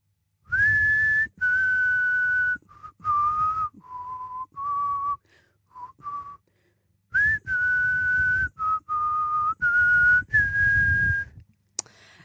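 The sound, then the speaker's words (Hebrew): A person whistles a short, clear melody from a stage play, two similar phrases of sustained and quick notes separated by a brief pause, with no talking. “שריקה קטנה מהמחזה? שריקה קטנה, אוקיי, רגע.”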